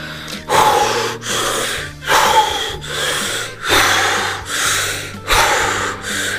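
Someone blows air by mouth into a small inflatable pool in a steady series of about seven forceful, breathy puffs, each a loud rushing exhale separated by short pauses, with no talking.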